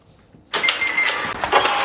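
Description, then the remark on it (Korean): A card terminal printing a receipt: after a brief silence, a steady, buzzy mechanical whir starts suddenly and runs on with slight stuttering pulses, fairly loud and alone with no voices. “이게 뭐냐면 카드 이렇게 하면은 영수증 나오는 그 소리래요.”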